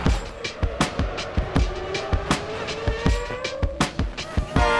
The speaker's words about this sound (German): für ein Autorennen.